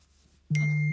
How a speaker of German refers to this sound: Das war mein Handy.